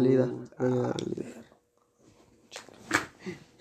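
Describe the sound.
A dog growls in two rumbling bursts, the second longer, followed by a brief quiet and then indistinct talking and rustling noises.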